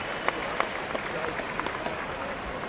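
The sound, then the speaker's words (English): A large football crowd murmurs before a penalty shootout in a steady, dense wash of noise, with scattered claps popping out irregularly throughout. “Our murmur is trepidation.”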